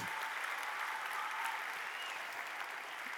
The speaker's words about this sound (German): Give these two a round of applause one more time. Give them a großen Applaus.